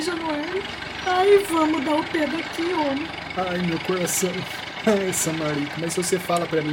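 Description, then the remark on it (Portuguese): The engine of an old Ford Escort car belonging to the speaker's father idles with a steady, low rumble throughout, sitting beneath the animated voices of several people talking over it. “O escorte do meu pai,”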